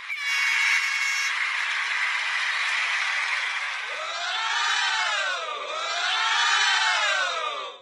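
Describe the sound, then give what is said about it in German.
A crowd cheering sound effect from a running app, sent to cheer on a friend who is running, dense and loud throughout, with honking horn-like tones; after a few seconds the cheers swell and dip in two rising-and-falling waves. “Wenn ich dann sehe, dass eine von meinen Freundinnen gerade läuft, kann ich sie sogar anfeuern. Das klingt dann so.”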